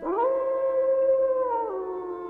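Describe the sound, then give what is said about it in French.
A single long wolf howl rises quickly, holds a steady sustained tone, then dips slightly near the end, loud with no other sounds around it. “Que font-ils maintenant dans cette forêt Hélas Mon Dieu Mon Dieu Les loups les ont peut-être déjà mangés”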